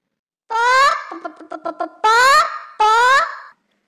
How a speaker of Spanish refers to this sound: Yo también tengo que tener paciencia con mis amigas, las otras gallinas, que a veces el gallinero se alborota y vaya la que se arma.